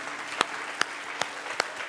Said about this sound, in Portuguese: Só que ele é digno de um aplauso bem bonito para ele?